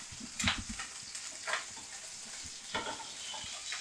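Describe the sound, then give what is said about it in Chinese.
Scored squid, placed uncut side down, sizzles steadily in a frying pan, a constant crackling hiss with sharper spattering pops at intervals from its water content, and no one speaks over it. “那这时候小心会喷哦，所以。”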